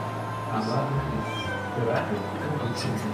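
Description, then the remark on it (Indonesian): A person imitates a cat's meow with their voice while asking for the English word for cat, a couple of drawn-out mewing calls over a steady background hum. “bahasa Inggrisnya kucing meong meong apa itu?”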